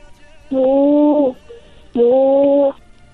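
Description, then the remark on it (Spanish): A young child's voice imitates a horse's neigh with two sustained, fairly steady vocal calls, each under a second long with a short pause between them, close and clear with no talking. “Ahora hazle como un caballo.”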